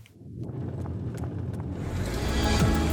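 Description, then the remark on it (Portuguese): A car approaches along a street toward a pedestrian deciding whether to cross, its engine rumble and tire noise swelling steadily louder and filling out in the highs as it approaches. “Opa, tá vindo um carro.”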